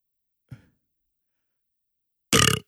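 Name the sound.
burp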